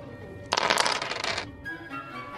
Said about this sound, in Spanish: que me hagas una tirada de moverse. Tienes seis dados.